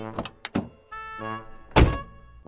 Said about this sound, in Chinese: 司机打开汽车后门，说：“ 女士们，请上车。”